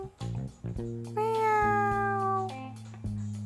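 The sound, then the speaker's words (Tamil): A person imitates a cat's meow with a long, rising-then-falling drawn-out vocal cry, fairly loud, over a steady low musical backing with a few soft percussive hits. “அப்படின்னு ஒரு சத்தம் கேட்டு என்ன சத்தம் அது அது ஒரு பூனையோட சத்தம் அந்த பூனை அந்த ஊருக்கு உள்ளே வந்தது ரொம்ப பசியோடு வந்தது”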